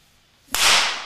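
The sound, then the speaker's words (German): One sharp hand clap snaps out of near silence, followed by a bright, hissy wash that lingers and fades slowly. No voices accompany it. “Es knallt, natürlich nicht meinem Klatschen gleich, was ich eben gemacht habe, sondern so diesen lauten Knall einer Schusswaffe.”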